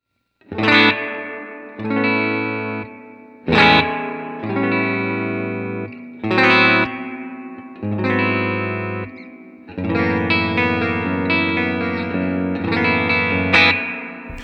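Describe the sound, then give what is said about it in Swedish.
An electric guitar strums a series of chords through heavy spring reverb with the reverb mix turned up full and the drive untouched, each chord washing into a long, shimmering tail. It is loud, with no talking. “Nu är det full reverb mix.”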